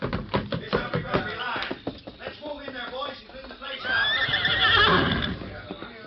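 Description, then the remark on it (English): Several horses, including Scout and Silver, whinny and neigh loudly, their calls rising and overlapping, with a brief clatter of hooves and movement early on before a long shrill whinny near the end. “Keep low till we get through the back door, then run for the horses.”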